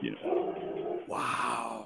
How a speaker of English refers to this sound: someone's dog is angry. Sorry, that's my dog.